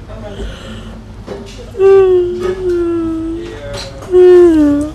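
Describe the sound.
Someone imitates a pig, letting out two loud, drawn-out squealing cries with a sliding pitch, after some quieter snuffling noises.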